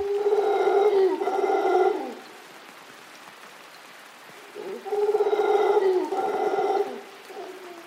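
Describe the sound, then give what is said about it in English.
Large, mostly black monkeys, two to three feet long with a golden fringe down their sides, roar loudly in two long, harmonic bursts of about two seconds each, separated by a pause with a low, steady background hiss; recorded in Costa Rica by Andrew Roth. “Andrew Roth recorded these noisy primates for the CD ….”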